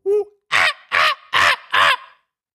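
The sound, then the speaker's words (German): A person imitates a monkey call: a short opening hoot, then four loud, harsh, evenly spaced cries, alone with no talking. “das klang jetzt so ein bisschen wie der Vogel, der ein bisschen abdreht und am Anfang dachte ich, es wäre eine Eule, aber äh, ich bin mir ziemlich sicher, es soll ein Affe sein.”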